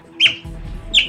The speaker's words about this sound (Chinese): 海獭的声音，海獭每天会花大半的时间待在水里。连生小孩，还有养小孩的时候，也都是喜欢在水中进行的。